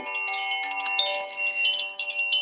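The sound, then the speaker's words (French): A cluster of chimes rings continuously as accompaniment to a guided meditation, bright overlapping metallic tones shimmering and sustaining, with gentle repeated strikes adding sparkle; moderately soft, with no voices. “Euh, je vais vous faire un petit accompagnement de, de carillon.”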